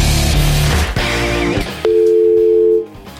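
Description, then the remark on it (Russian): A single steady telephone line tone of an incoming call to a radio phone-in game, like a ring signal, sounds clearly for about a second after a short burst of music, then cuts off abruptly. “Я вот думал, кто-то же звонит, не, Нет, не услышав песню, кто-то звонит, думаю, ну вот интересно.”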